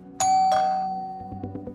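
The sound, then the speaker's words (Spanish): A two-tone doorbell chime at a house door, rung by a group of people, rings out clearly, a bright first strike followed by a lower second tone that lingers and fades, with faint voices and background murmur underneath. “Un grupo de personas toca el timbre de tu casa.”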